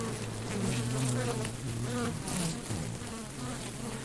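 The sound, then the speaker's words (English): A steady drone of bees buzzing, with several overlapping wingbeat tones rising and falling slightly as the insects hover and move about, continuous throughout with no voices. “So if you can do those two things, you're really going to support the local native bee population as well as all those domesticated honeybees that people have.”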